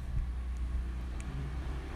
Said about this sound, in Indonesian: Tuh kan suara motor.